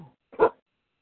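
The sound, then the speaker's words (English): A dog gives one short, sharp bark, fairly loud, followed by silence. A faint, brief murmur comes just before it. “I'm going to have to take the dog out, so hold on with me, guys.”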